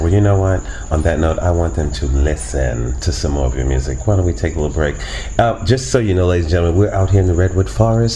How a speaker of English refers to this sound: That's why you hear the crickets in the background.